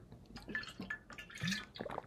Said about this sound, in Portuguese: Tomei um gole de água aqui que minha garganta tá ficando seca